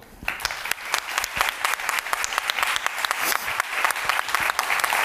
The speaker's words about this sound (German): Ihr müsst jetzt so lange klatschen, bis Gianna auf der Bühne ist. Das schafft ihr.